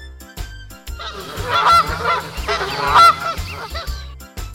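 A flock of geese honks repeatedly, their overlapping nasal calls loud, rising and falling over a low, steady rumble in the background.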